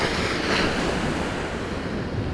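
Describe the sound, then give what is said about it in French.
Steady roar of surf washing onto a nearly empty beach in Normandy on a very sunny day, a broad continuous hiss with a slight swell in the first second, no voices, with some wind rumble underneath. “Il n'y a pas grand monde euh, au bord de cette plage, donc euh, c'est bizarre en soi, hein, parce qu'il fait quand même très beau.”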